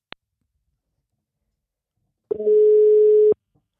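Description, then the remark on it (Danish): While a phone call is being placed, a brief click, a pause, then a handset click followed by a steady electronic telephone tone lasting about a second before cutting off with another click. Clear, with no voices. “ham ringer jeg til lige om et ganske kort øjeblik, så vi kan komme i gang med dagens afsnit. 3, 2, 1. Ring op.”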